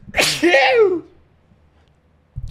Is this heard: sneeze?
yes